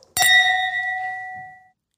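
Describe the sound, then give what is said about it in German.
A single bright clink of glasses touching in a toast at a dance school on Kastanienallee, followed by a clear ringing tone that lingers and slowly fades over about a second and a half. Fairly loud, with no talking. “Und erstmal Prost.”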